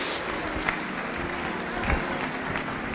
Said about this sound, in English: Let's give our singles a hand clap. Come on. Praise Jesus.